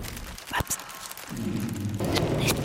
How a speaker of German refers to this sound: Ich höre Gesprächsfetzen, eine Zeitung oder Papier. Es wird auch gefaltet oder es raschelt.